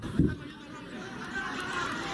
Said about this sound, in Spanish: Miren, ahí están los gritos.